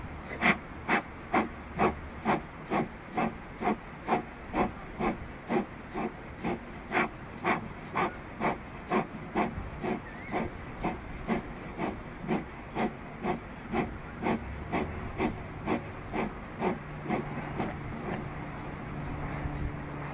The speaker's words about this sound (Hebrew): אז שאיפה דרך האף, והנשיפה תהיה במקטעים קטנים. תשתדלו לא להתאמץ יותר מדי, לא לחשוב יותר מדי איך לוקחים אוויר, איך מוציאים, זה ממש צריך להיות ספונטני וברצף, אז זה ילך ככה, שאיפה ונשיפות.